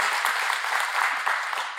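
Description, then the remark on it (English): An audience applauds Pastor Rick steadily, a dense crackle of many hands clapping at once, sustained and fairly loud throughout with no voices rising above it. “Come on, let's give the Lord a great big round of applause for Pastor Rick.”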